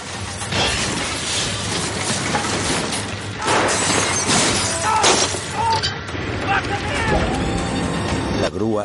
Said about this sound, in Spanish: El pulpo de la grúa agarra el coche por el techo, prensándolo.